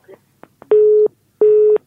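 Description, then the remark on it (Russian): A few soft clicks, then two loud, steady beeps of a telephone busy tone, each about a third of a second long with a short pause between, as a caller's phone-in call drops and cuts off. “перезвоните, пожалуйста к сожалению, не успели услышать.”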